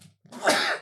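A single sharp sneeze bursts out, a brief intake followed by an explosive, noisy release that fades quickly.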